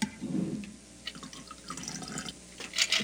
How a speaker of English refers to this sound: So now, with our julep strainer on our mixing glass, we're going to pour this into our low ball.